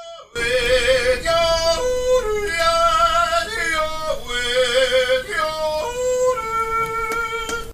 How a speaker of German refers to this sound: Einmal jodeln, bitte. Bei YouTube. So klingt echtes Jodeln.